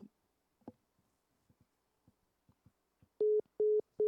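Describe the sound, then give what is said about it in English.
A dropped phone call: a few faint clicks and scraps of line noise, then three loud, steady beeps of a disconnect tone at one mid pitch, evenly spaced with short gaps. “Oh no, he cut out.”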